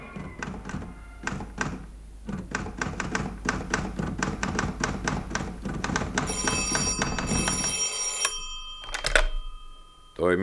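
An old-fashioned telephone bell rings loudly, a fast metallic rattle sustained for several seconds before it cuts off with a clunk, like a receiver being lifted.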